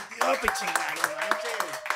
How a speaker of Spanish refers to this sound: Chicos, hay que darle un aplauso a nuestro invitado de hoy,